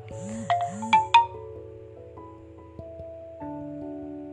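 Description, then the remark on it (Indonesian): A WhatsApp notification tone for an incoming message: two quick rising electronic blips followed by a few steady synthetic tones, fairly soft, with no one talking. “tapi aduh ada suara WA ya, lagi masuk”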